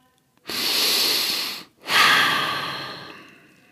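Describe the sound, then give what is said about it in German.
Two long, deliberate breaths: a slow, noisy inhale followed after a short pause by an even longer, airy exhale, with no talking. “Genau, der Atem.”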